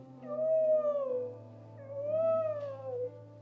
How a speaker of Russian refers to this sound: вот этот ультразвуковый крик кита из глубины океана в космос, чтобы если там есть какие-то разумные существа, они подумали, какая красота.